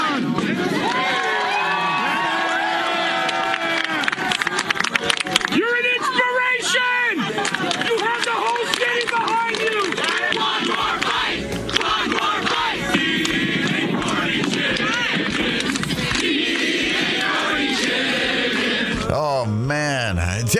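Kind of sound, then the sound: crowd, crowd cheering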